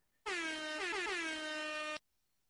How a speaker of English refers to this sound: Let's put the uh, let's get the air horns on. Hang on.